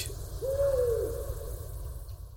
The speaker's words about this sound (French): Vous connaissez maintenant les chants des trois plus répandues espèces des hiboux en Europe. Le hibou petit-duc, le moyen-duc et le grand-duc.